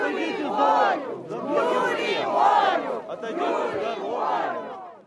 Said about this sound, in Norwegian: Sett Julia fri, roper noen hundre demonstranter utenfor fengsel nummer 54 i byen Kharkov i Ukraina. Det er her landets tidligere statsminister Julia Timosjenko sitter, dømt til fengsel i sju år.